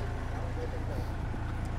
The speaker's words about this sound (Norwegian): Det er vel noen biler, vet ikke. Ja, må bare... Vi rekker å slippe de forbi.